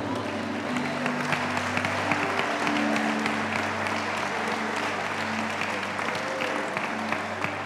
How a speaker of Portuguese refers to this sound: Pode aplaudir o Senhor.